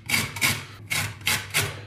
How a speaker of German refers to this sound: Also ich äh, reibe jetzt die Limette ab und dann äh, wird die ausgepresst, denn wir brauchen später noch Limettensaft dazu.